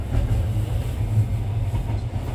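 Steady low rumble of an international overnight sleeper train between Georgia and Armenia rolling on rails, heard from inside the carriage, with a continuous deep drone and faint rhythmic rattling throughout. No one speaks.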